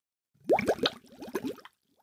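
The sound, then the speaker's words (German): Water pours into a bathtub in a bathroom, making a quick run of bubbly, rising gurgles for about a second before trailing off. No voices are heard. “Wir sind immer noch im Badezimmer. Mhm, und mein Wasser wird langsam kalt.”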